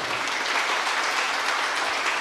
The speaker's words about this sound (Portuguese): Vamos aplaudir o Senhor, pessoal.